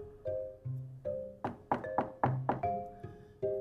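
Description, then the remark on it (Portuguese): A string of sharp knocks on the door of grandmother's house, about six quick raps in an uneven rhythm, set against sustained low tonal notes like a musical sound effect. No one speaks. “Quando chegou, bateu na porta.”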